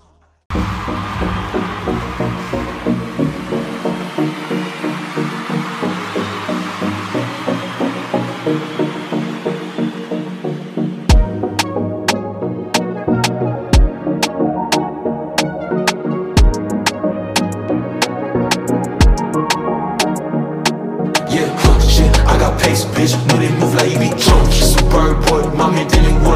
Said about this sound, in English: Like when you're doing something, when you're like exercising or something, you can just vibe to this song.